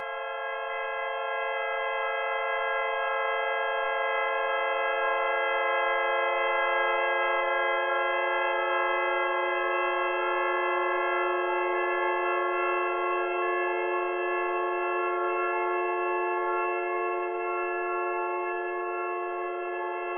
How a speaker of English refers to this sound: And I had uh, several tones evoked in my ears with these uh, sine waves, and then afterwards I filtered away the sine waves and the noise, which left me with these rather pure tones generated by my ears.